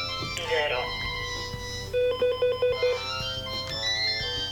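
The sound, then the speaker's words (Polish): A phone ringtone for an incoming call plays a short electronic melody, then a quick run of rapid repeated beeps, fairly loud, over a low background hum with faint voices. “Aha, muszę odebrać. Dobrze, odebrałem.”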